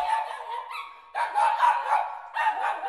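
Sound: small dog barking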